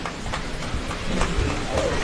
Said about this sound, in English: Rain, somebody said, is like confetti from heaven. So even the heavens are celebrating this morning, uh, joining the rest of us at this wonderful commencement ceremony.